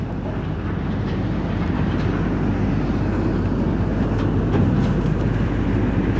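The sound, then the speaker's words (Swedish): A steady, heavy low rumble of a car ferry's engine with grinding, crunching texture as it pushes through ice on Sweden's northernmost road ferry route, the Boheden crossing, about 800 metres long, as the moon rises; continuous and loud throughout with no voices. “Ja, så här låter det alltså när man åker på Sveriges nordligaste vägfärja från Trafikverket Färjerederiet Paulina håller på att ta sig över här i is.”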